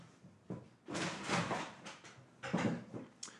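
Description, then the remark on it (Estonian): A door rattles and bumps in several uneven bursts as a cat, stuck somewhere, pushes against it, wanting to get to the refrigerator. The clattering has short quiet gaps between bursts. “kass on kuskil kinni. ta ei ole, ta tahtis külmkappi saada.”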